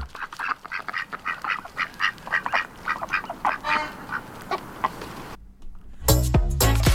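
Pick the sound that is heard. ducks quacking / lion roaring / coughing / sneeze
ducks quacking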